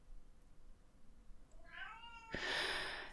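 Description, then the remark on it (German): A hungry cat yowls in the hallway, a rising, drawn-out wail followed by a louder, harsher cry, with no talking over it. “Der Herr hat Hunger, aber der muss sich jetzt noch ein bisschen gedulden. Also der äh, jault jetzt gerade im Flur.”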